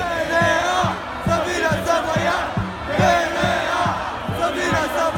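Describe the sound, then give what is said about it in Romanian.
A large protest crowd in Piața Victoriei, Romania, chants anti-corruption slogans in unison at a Sunday protest in defense of prosecutors, voices rising and falling in a steady rhythmic cadence with regular beats, loud and dense throughout. “Am auzit duminică de duminică în piața Victoriei justiție, nu corupție, DNA să vină să vă ia. Au fost proteste pentru apărarea procurorilor.”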